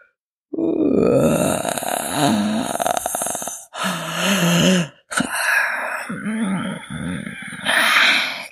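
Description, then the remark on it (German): A voice acts out a wolf's long, drawn-out yawn and stretch: loud growling groans and gravelly, rumbling breaths in several sustained bursts with brief pauses between them, and no words. “gähnte dieser und fing an, sich zu recken und zu strecken.”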